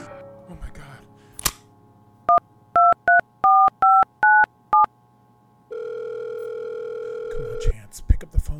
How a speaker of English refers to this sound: Pick up the phone. Pick up the phone.